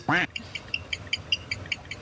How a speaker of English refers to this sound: But like, if you hear that, then you know an owl's around